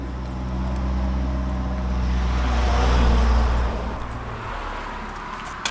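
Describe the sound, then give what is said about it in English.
Steady road traffic rumbles past a sidewalk with the road on one side and water on the other, a deep low hum swelling as a vehicle goes by mid-clip and then fading, with a broad wash of tire and engine noise throughout and no voices. “Well, that, that makes sense because we're on a sidewalk. On one side's the road, on one side's the water.”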